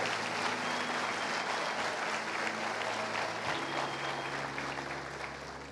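An audience at a church service breaks into sustained applause for Jesus, a dense wash of many hands clapping at a steady level for several seconds, tapering slightly toward the end, with a low hum underneath and no one speaking.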